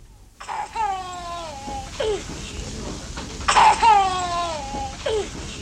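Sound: child crying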